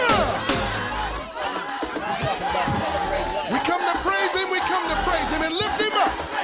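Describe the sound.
A large crowd roars and cheers continuously, a loud, dense wash of overlapping shouts and voices that stays at a steady high level throughout, with possible clapping mixed in.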